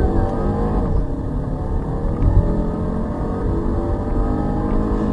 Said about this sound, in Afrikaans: maar die grootste verbetering is onder die engine kap op die petrolgedrewe T5 wat ek bestuur. Sy 2 liter turbo masjien skop nou 'n 180 kW en 350 Newtonmeter uit.